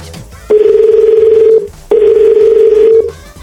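Two long, steady ringback tones from an outgoing phone call, each lasting about a second with a brief pause between, clear and fairly loud over a faint background.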